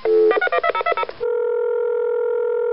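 A quick run of about ten touch-tone keypad beeps dials a number, followed by a steady, unbroken telephone tone that holds for over a second, clear with no voices.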